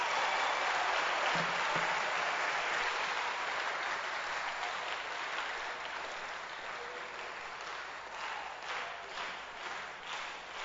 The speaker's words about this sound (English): Clap your hands for Jesus.